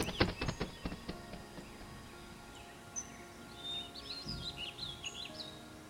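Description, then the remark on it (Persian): Birds chirp and sing softly, a scatter of high twittering calls in the second half, after a few sharp clicking taps at the start, with no one speaking. “پرنده ها رو ببین”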